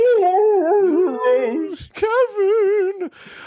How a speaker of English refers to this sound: My dog's even screaming in the other room because he's just he's hearing all of these references.